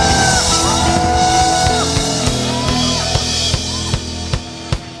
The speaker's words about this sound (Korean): 최고의 영광의 박수 함성